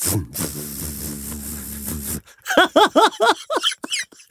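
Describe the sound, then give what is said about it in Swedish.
A voice imitates a car engine with a sustained buzzing rumble for about two seconds, then a quick run of rising, squealing revs and vroom sounds, fairly loud. “Och billjud på riktigt.”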